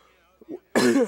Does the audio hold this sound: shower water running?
no